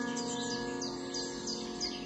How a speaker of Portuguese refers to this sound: E muitos, no entardecer, vejo voltar na mesma alegria e cantoria. E assim com tantas matas, sem barulhos de carros, poluição, casas. Aqui, esses pássaros decidiram morar.